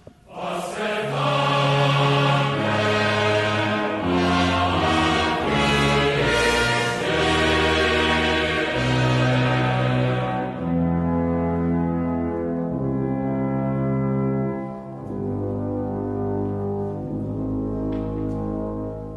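A Venezuelan youth symphony orchestra plays loud, sustained chords with deep brass and strings, swelling through slow changes and softening slightly toward the end, with no voices.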